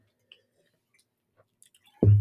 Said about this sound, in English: That. that went down kind of rough because I swallowed that like in the wrong.